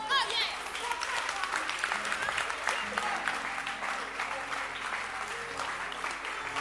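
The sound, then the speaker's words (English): A crowd claps steadily and densely for several seconds, a thick wash of many hands applauding at once, fairly loud and sustained without letting up. “Can you clap your hands?”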